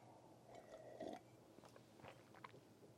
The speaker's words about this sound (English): Oh, I didn't. I didn't mute my mic. Sorry, you just heard me slurping coffee.